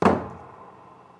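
A sound effect made at a microphone by animators illustrating a story: one heavy, dull knock on the wooden door of an ice castle, its low thud fading slowly into a lingering ring, with no voices.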